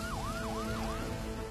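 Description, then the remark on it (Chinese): A police car siren whoops in quick rising and falling sweeps, about three cycles, loud over a steady hiss of rain, with no one talking; many police cars waiting at a fishing-boat dock in Rongcheng, Shandong, China, in August 2011. “渔船靠岸之前，大批警察和警车严阵以待。”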